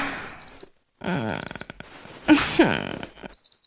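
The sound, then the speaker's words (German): An alarm clock rings with short bursts of high-pitched electronic beeping that stop and start, while a louder burst of voice-like groaning and rustling briefly rises over it midway. “Ich hasse dieses Klingeln.”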